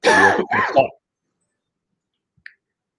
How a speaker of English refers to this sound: I'm sorry, I was coughing.